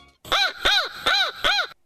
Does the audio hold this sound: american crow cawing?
yes